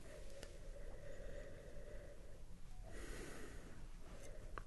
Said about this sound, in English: I have to. I have to get another sniff of it before I be able to describe it.